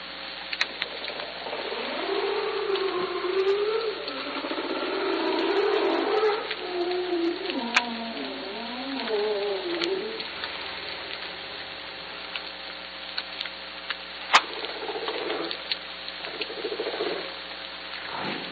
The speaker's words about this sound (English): So you want to hear some Haro Strait humpbacks from Washington? Absolutely. Humpback whales are famous for the long songs they make, but so far in the Salish Sea we have only heard them making shorter sounds like these.